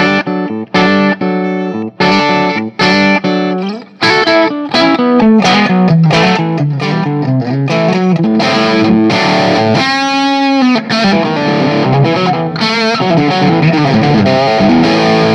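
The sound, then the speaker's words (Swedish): A distorted electric guitar played through a Geezer amplifier, starting with choppy staccato chords that give way to sustained, gritty melodic lines with a wavering, vibrato-like tone. Loud and continuous, with no talking. “Ja, nu är det Geezer-preampen då.”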